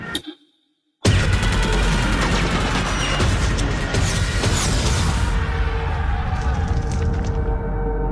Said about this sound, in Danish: vi hører her til sidst de britiske soldater på, på stranden ved Dunkirk blev udsat for kraftig maskingeværild fra det tyske jægerfly